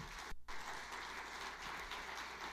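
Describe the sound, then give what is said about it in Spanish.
An audience applauds God together, a steady dense wash of many hands clapping at an even level, with a brief dip near the start and no voices standing out. “Oh, yo, le daría un aplauso a Dios por eso.”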